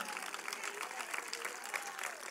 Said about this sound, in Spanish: Denle un aplauso al Señor Jesucristo, aleluya.